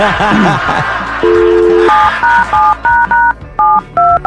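telephone number being dialed

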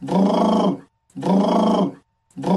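snoring

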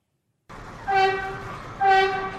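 subway train

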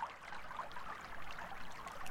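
flowing stream water

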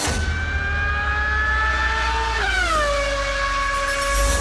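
racing cars speeding past

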